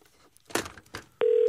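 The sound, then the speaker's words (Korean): Phone keypad dialing as a call is redialed after a bad connection: two soft button-press clicks, then a single loud, steady electronic tone that starts abruptly and holds unbroken until the end. No one speaks. “다시 한번 전화 걸겠습니다.”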